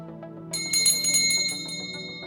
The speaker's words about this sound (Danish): Jeg starter optagelsen ved at ringe med udvalgsforpersonens gyldne klokke og skruer tiden tilbage til den 2. oktober 1972, hvor stemmerne efter dagens folkeafstemning er ved at blive talt op. Vi er her i Europa udvalgets lokale.